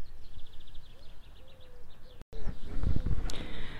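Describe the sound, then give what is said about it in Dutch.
Faint pigeons cooing softly in the background, mixed with a rapid series of small bird chirps, before a short break and louder rustling, handling noise. “Dus misschien kun je ze nog een klein beetje horen. De duiven in ieder geval.”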